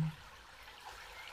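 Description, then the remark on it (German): A soft, continuous rush of flowing stream water, steady and fairly faint, like a brook, with no voices over it. “Und es kann sein, dass auf einmal die Qualität des Wassers, das, was du wahrgenommen hast, sich nun noch einmal verändert.”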